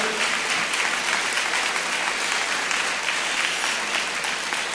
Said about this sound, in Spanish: Aleluya. aplaude al Señor Jesús, por favor.